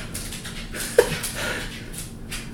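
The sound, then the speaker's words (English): Light, irregular clicks and taps of the dog Fenway's nails on a hard floor, scattered across a few seconds over a quiet hum, with one slightly sharper tap midway. No one speaks. “I don't know if you can hear those nails click clacking on the floor.”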